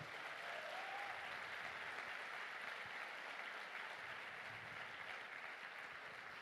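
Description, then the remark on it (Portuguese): Sustained audience applause for Jesus, a dense, steady wash of many hands clapping at an even loudness for several seconds, with no one speaking over it. “Quem pode aplaudir a Jesus pela vida dessa mulher?”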